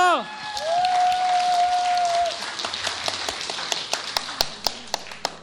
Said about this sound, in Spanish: Esta chica a toda China salvó con su pequeño amigo dragón. ¿Quién dijo Mulan? ¡Bien! ¡Un aplauso!